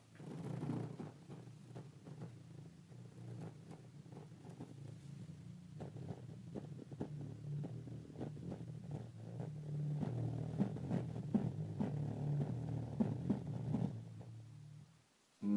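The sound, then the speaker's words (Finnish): A steady, deep bass rumble drones continuously for about fifteen seconds with faint clicks and rustles on top, then cuts off abruptly near the end. “Ja, ja voisitte sitten kuulla tämän, miten tämä murisee mun selkää vasten tämä”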